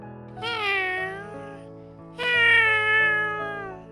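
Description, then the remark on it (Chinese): A person outside at night, pinching their nose, imitates a cat's meow twice, two long, drawn-out mewing calls with rising then falling pitch, heard over soft, steady low tones, with no talking. “果然不久，有人捏着鼻子在外面学猫叫。”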